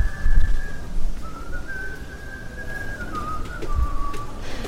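Someone whistles a slow, wavering tune in long held notes that step up and down, over a low rumble of background noise with occasional soft thumps, inside a FNAC store during the sales.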